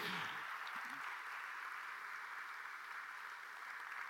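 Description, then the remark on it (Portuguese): A church audience applauds the Lord steadily, a dense wash of many hands clapping at an even level for several seconds, with a faint voice briefly audible at the start. “Se você está muito feliz por fazer parte da família de Deus, dê um aplauso, dê um aplauso bem forte, bem forte, bem forte ao Senhor.”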